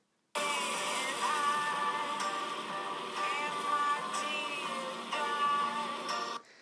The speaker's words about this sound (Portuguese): Yeah, e aí a chuva estava mesmo forte a bater no carro.